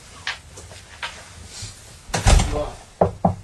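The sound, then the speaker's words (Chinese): A door swings shut with a heavy thud and rattle, preceded by soft footsteps and handling sounds, then two sharper clicks as the latch settles. “我去把门关起来。”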